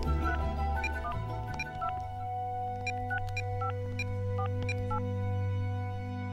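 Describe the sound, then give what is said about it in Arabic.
A phone number found on the internet being dialed from a cramped room in London: a quick run of about a dozen short electronic keypad beeps, fairly evenly spaced, over a steady low hum, with no one speaking. “من غرفتي الضيقة التي شابهت حلم العودة إلى البلاد رفعت سماعة الهاتف وطلبت رقما وجدته على الإنترنت”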